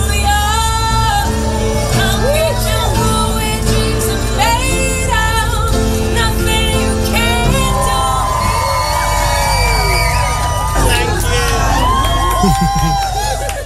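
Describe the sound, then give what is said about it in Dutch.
A spontaneous live song with a woman singing at a piano, heard through the steady, loud murmur and cheers of a packed crowd in a London train station. “De zangeres kroop achter een piano in het bomvolle treinstation.”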